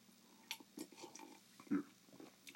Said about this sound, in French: Excusez, je prends une gorgée d'eau.